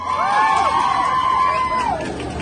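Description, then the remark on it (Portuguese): A crowd of onlookers cheers, whoops and applauds loudly after a young couple's marriage proposal, many voices rising and falling together over a steady wash of noise for a couple of seconds. “Abraçaram-se e os curiosos sorriram e aplaudiram, como se pode ver no vídeo que imortalizou aquele momento e que circula nas redes sociais.”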